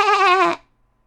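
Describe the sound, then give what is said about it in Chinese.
One short, wavering sheep bleat, loud and nasal with a trembling quiver, lasting about half a second and then cutting off into silence. “所有的羊都要去剪毛。是的，所有的。当然，这次也包括赫尔伯特。咩！”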